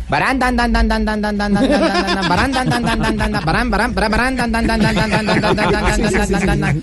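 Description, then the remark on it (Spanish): A single voice does a loud, sustained imitation of a souped-up ('envenenada') motorcycle engine of the kind ridden in Medellín, a buzzing, rattling drone that rises and dips in pitch with rapid pulsing for about seven seconds. “Que prohíban, que prohíban las motos envenenadas.”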